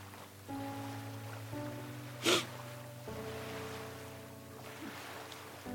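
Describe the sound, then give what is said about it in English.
Ocean waves wash steadily and splash against each other with a soft, continuous hiss, broken by one brief, louder splash midway, while a low, steady motor-like hum runs underneath throughout. “The two sit there, listening to the waves.”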